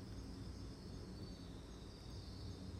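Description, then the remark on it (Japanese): A soft, steady chorus of autumn insects chirps outdoors in a large, forest-like garden across from a home, heard from a balcony corner on a windy full-moon evening, a continuous high trilling that sounds faint over a low background rumble, with no talking. “すっかり秋ですね虫の声うちのねこの家の向かい側のお庭がですねもう軽く森ぐらい広いんですよでそこのね鳥の声とか虫の声が賑やかです”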